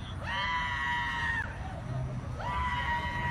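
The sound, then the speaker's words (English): Two long, high-pitched screams ring out one after another in a video, loud and sustained, over a constant rumble of crowd noise and commotion. “That that'll bring her back, the yelling.”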